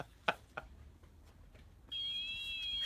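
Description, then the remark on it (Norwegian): A robotic lawnmower's alarm starts up: after a couple of faint clicks, a loud, steady high-pitched electronic tone comes in and holds without a break. No one speaks. “Og der går alarmen på klipperen.”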